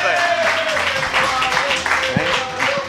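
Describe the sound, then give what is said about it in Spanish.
A live audience at a live show in Málaga applauds steadily for a few seconds, a dense wash of many hands clapping, with a faint voice or sustained tone underneath the noise. “Podéis, aplaudir, podéis no cortéis.”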